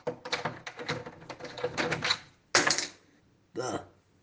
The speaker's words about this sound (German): Wie? Wieso schließt du ab?